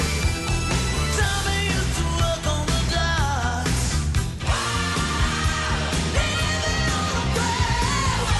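A loud rock song plays steadily, with driving drums, dense guitars and a strained, shouting lead vocal riding over a pounding beat throughout.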